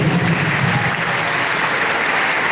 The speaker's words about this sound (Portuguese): Mais uma salva de palmas para eles. Né?